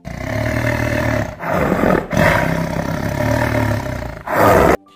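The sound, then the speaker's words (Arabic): A lion running toward two hunters roars loudly in three long, rasping bursts, each deep and rumbling with brief pauses between, the last one shorter before an abrupt stop. No one speaks. “وبعد قليل عاد الصيادان ومعهما العربة لحمل الأسد ولما رآهما الأسد جري نحوهما بسرعة وزأر زئيرا مخيفا”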